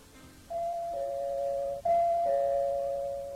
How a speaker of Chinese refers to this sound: 哦，这是托马斯在按门铃，我差点把他给忘了。